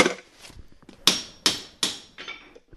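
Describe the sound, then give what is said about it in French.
A farrier's hammer drives horseshoe nails into the horn of a horse's hoof with a run of sharp, ringing metallic taps, three loud strikes at an even pace, then a softer one, with fainter knocks before them and no talking. “On broche le clou dans la, boîte cornée au bruit.”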